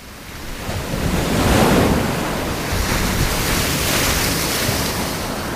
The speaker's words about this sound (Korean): 하늘이 어두워지자 바다는 더 크게 울었다.